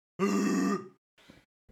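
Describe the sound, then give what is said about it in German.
A voice imitates a foghorn with one loud, low, steady blast lasting about half a second, then trails off, followed by a couple of short breathy noises. “Oder halt wirklich so. so ein Nebelhorn. Wie cool wäre das wenn du drauf drückst?”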